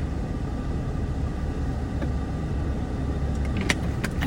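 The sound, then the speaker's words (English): Steady low rumble of a car driving home from work on the road, a constant engine and tire drone with a few faint clicks and brief higher ticks near the end, no voices. “driving home from work right now.”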